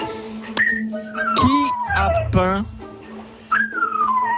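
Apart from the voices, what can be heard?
dog whining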